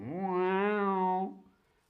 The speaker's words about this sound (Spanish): El gato. El gato maulla.